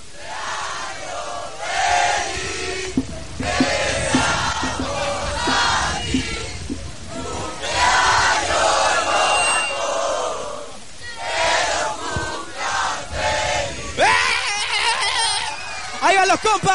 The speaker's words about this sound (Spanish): Oye, acaban de cantar el cumpleaños feliz. Ellos, todos juntos. Uno, dos, tres.